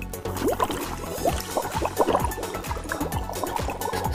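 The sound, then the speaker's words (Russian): A playful vocal gurgle: a woman's voice bubbles and warbles with joy in quick, rising chirps, repeated steadily for about four seconds with no words spoken. “Это был не глоток, это было счастливое бульканье.”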